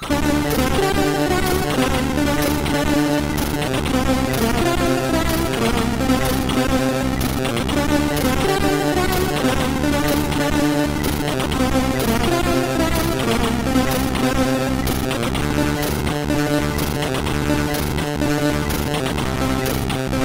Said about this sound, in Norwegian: vi skal høre noe C64-musikk. Ja, ja, det som skjer er at Vi kommer til å sette inn noe musikk her